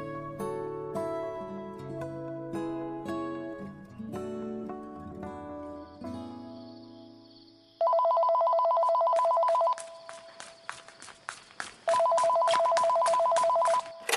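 A short stretch of melodic music gives way to a telephone ringing: two long, loud, steady electronic trills, each about two seconds, separated by a pause with a few faint clicks, in an audio drama produced by the Lingxiao Theatre Troupe.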